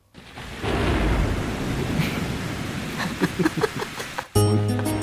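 Steady rain hisses loudly with a low rumble of thunder beneath, a sound effect at the start of a song played in a music quiz, a few sharp splashy crackles toward the end, then a musical tone with harmonic lines suddenly enters.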